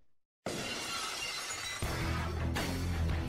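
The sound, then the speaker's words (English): A sudden, loud crash of shattering glass, played as a Stone Cold entrance sound effect, bursts in after a brief silence, with a dense, sustained spray of breaking shards and a second impact surge near the end. “Oh my God, Stone Cold is entered the building.”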